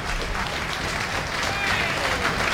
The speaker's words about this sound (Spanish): Aquí la gente se pone en pie, lo tienen desconcertado. ¿A quién están aplaudiendo?